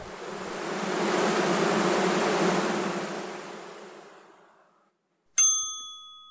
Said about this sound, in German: Tausende von Bienen bedanken sich fürs Zuhören.